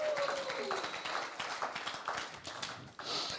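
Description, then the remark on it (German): A crowd breaks into steady applause for God, many hands clapping at once in a dense, continuous patter for a few seconds before easing slightly at the end. “Guter Moment, um Gott einen Applaus zu geben.”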